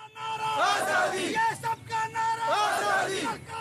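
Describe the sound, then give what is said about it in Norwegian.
A large crowd of protesters in Kashmir chants 'Asadi', freedom from Indian rule, in unison: loud, rhythmic shouting that rises in two strong waves with a brief dip between them, many voices blending into a dense roar. “Både i Shinnegar, hovedstaden i indisk styrt Kashmir, og i Musafarabad i pakistanskkontrollert Kashmir roper de 'Asadi', frihet fra indisk styre.”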